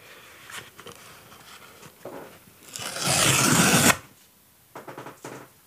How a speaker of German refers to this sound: Das klang, als ob du Klebeband von einem Paket oder sowas gelöst hast. Gar nicht schlecht. Ich kann es leider nicht nochmal machen, weil es ja jetzt ab. Also ich, ich würde auf jeden Fall irgendwie auf Klebeband oder sowas tippen.